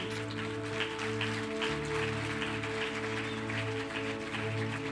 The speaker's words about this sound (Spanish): Vamos a darle un aplauso fuerte.